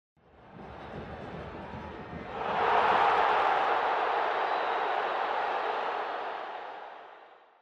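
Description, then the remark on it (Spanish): A large crowd of football fans in the stands of a stadium murmurs steadily, then swells into a loud, sustained roar of cheering about two seconds in, holding strong before gradually fading away at the end. “Es una sensación desoladora para el hincha que disfruta de ver a su equipo de fútbol desde las gradas de un estadio.”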